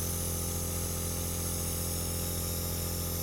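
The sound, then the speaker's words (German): A steady mechanical drone from an air compressor in a basement, running continuously with a low hum and a broad airy hiss layered over it, unchanging throughout with no voices. “Der Kompressor steht im Keller.”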